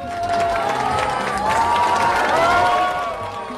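A crowd cheers and shouts excitedly at the opening of a new Apple store in Beijing, China, a dense, sustained roar of many voices with whistles and yells rising over it, loud throughout.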